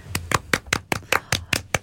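hand clapping

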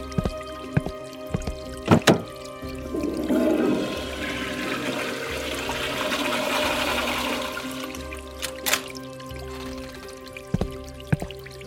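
toilet flushing

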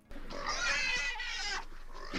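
pig grunting

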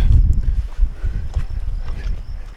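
wind blowing outdoors

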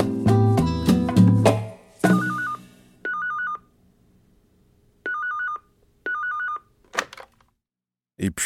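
telephone bell ringing

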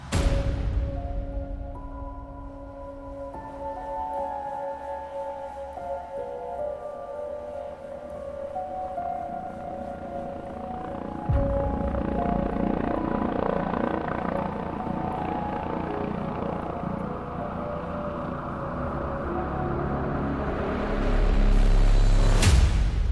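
helicopter flying overhead

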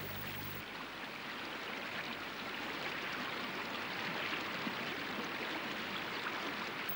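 flowing river water

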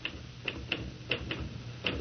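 typewriter typing

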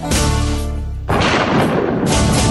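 thunderclap

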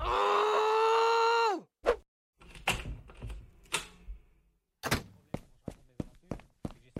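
groaning

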